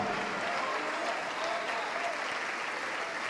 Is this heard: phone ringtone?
no